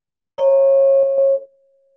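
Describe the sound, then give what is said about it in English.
A meditation bell is struck once to close a meditation practice, producing a clear, steady ringing tone that holds for about a second before fading into a soft lingering hum. No one speaks. “We'll close practice with the sound of the bell.”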